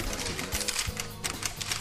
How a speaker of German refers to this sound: Wir sind, glaube ich, 15 Teilnehmer, die anwesend sind und uns hier fotografieren. Man hört es man hört's klickern, man hört es klickern.